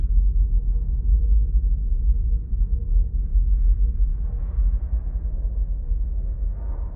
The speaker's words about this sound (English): Hearing the thrusters become a little quieter, you get the sense of slowing down as part of the space station pass your window.